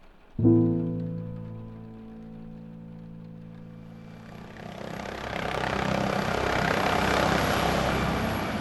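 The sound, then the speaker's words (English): A helicopter lands at the main camp of an archaeological dig, its engine whine and rotor hum starting abruptly, then a rising roar of rushing air and rotor wash billowing protective tarps over excavation sites as it settles down, steady and loud to the end. “The helicopter touched down at the main camp of the archaeological dig sponsored by the Athens Museum of History.”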